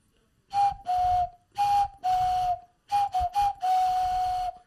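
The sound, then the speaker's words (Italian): A traditional bitonal clay cuckoo whistle, once a children's toy and now a souvenir, blown in short two-note cuckoo calls, a higher pitch sliding to a lower one, repeated in a loose breathy rhythm, fairly loud with no talking. “Il tintinnabolo ha perso la sua funzione di tintinnamento ed è diventato un oggetto, un fischietto, diciamo, bitonale per questo cucù.”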